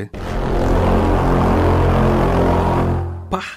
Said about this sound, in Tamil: உனக்கு இல்லை மறுபடியும் கொசு போதும்டா போதும் போதும் எனக்கு எதுக்கு இந்த எஃபெக்ட்லாம்